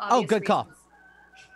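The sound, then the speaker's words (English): A rooster crows in the background while a person talks over it, the crowing fairly loud and brief before fading into a quiet hum. “Yeah, I heard the rooster in the background, uh, too.”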